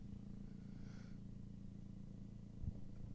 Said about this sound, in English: There's like a helicopter over me right now, I think. Can you hear that?